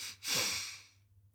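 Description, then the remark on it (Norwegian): Two quick inhales in a row, done as a calming breathing technique for stress: a short sniff followed almost immediately by a longer, airy breath in that gradually fades out, with no talking. “Så hvis du er veldig stressa, så kan det hjelpe å ta to raske pust inn.”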